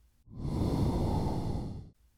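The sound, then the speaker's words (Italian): A single long, heavy breath from an unknown caller over a telephone line, fairly loud, rising smoothly and fading after about a second and a half, with no speech. “Di nuovo il respiro.”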